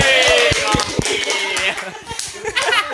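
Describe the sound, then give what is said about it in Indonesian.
A burst of hand clapping, sharp irregular claps in quick succession, fairly loud, mixed with voices and light laughter throughout. “Tepuk tangan dulu.”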